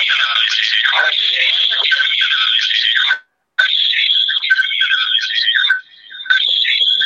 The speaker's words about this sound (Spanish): Se ve que hay un eco. Sí, un problema de, de, de, conexión.